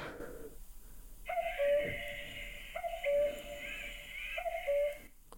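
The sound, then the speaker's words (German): A cuckoo call from a children's illustrated bird sound book, played by pressing the cuckoo on the page, repeats three times at a steady pace, each two-note hoot clear with a slightly tinny, electronic quality and brief pauses between calls. “gibt dann Kuckucksgeräusche von sich.”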